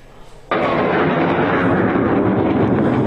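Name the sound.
bombing explosions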